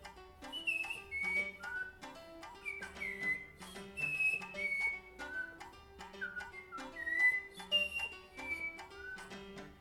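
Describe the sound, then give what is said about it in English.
A brown-throated wattle-eye gives its characteristic six-note call: clear whistled notes in repeated, slightly descending phrases, steady throughout, over a low, sustained tonal background. “They have a very characteristic six note call.”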